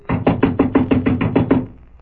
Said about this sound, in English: So I just sat there and waited for the door to take a beating. And it did.